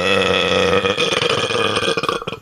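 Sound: burp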